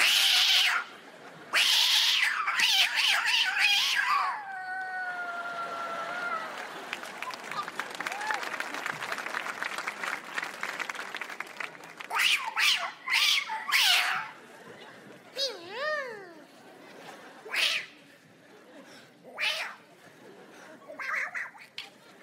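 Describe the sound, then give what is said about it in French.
A person imitates aggressive street cats, producing drawn-out, wavering yowls and hisses in a series of loud bursts, with harsh screeching tones and short pauses between cries. “Qu'est-ce qu'il y a Qu'est-ce qu'il y a qu'est-ce qu'il y a Ici, les chats, ils te mettent des coups de pression.”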